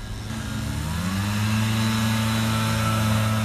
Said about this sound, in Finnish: Tänä lokakuisena aamuna täällä puhaltaa lehtipuhaltimet.